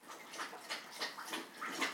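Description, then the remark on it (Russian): A female dog laps water from a bowl in quick, steady wet slurps, about three per second, soft, with no talking. “В общем, сейчас она попьет.”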